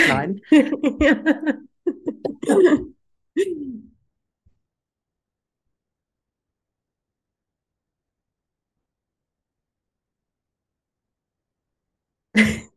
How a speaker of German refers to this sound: Entschuldigung, ich muss noch mal husten.